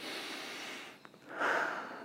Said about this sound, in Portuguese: Deixa eu respirar, deixa eu viver esse momento.